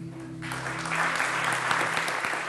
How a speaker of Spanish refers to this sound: Aplaudir al Señor.